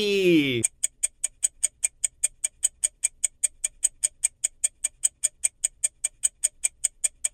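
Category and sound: sound effect, clock ticking tick-tock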